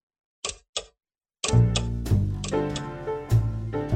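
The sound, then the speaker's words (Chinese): Two crisp clock ticks sound about a third of a second apart in silence, then rich, sustained music swells in and continues loudly to the end. “可以听见两侧飞翔着达利画笔下变软歪曲的时钟，滴滴答答的带我回到了二零年代的巴黎。”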